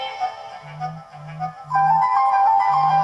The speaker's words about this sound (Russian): Так, кто-то звонит.